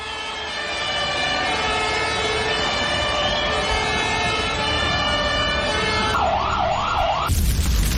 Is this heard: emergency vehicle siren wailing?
yes